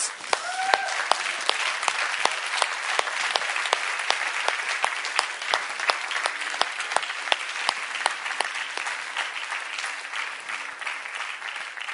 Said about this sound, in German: Dann stehen wir doch auf und geben dem Herrn einen mächtigen Applaus.